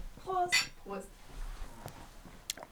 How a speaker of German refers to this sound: Ich möchte mit dir und dem wundervollen Eden Rock anstoßen. Das sehr gerne. Wohl.